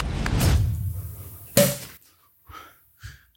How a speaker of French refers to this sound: J'ai galéré pendant 10 minutes à ouvrir cette bouteille, je voulais faire péter le bouchon, j'avais pas réussi